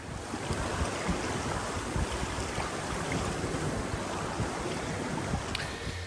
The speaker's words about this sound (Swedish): Det enda som är bättre är väl då egentligen ljudet, eller snarare bristen på ljud, när man glider fram längs farleden i en segelbåt. Så här.